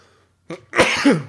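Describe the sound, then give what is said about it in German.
A single sneeze: a short sharp intake followed by a loud, explosive burst that trails off quickly, with no talking around it. “Gesundheit.”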